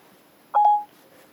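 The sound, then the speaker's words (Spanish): A brief electronic confirmation tone from Siri, the voice assistant on an iPhone, signalling it has heard a spoken request: a quick double chime lasting about a third of a second, clear against near silence, with no one speaking. “Lo pulsamos prolongadamente y eh, nos hace un sonidito, le decimos lo que queremos y hace otro sonido como para decir que, nos ha escuchado.”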